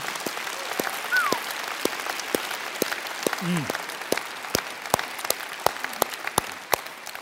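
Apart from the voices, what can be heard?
audience applause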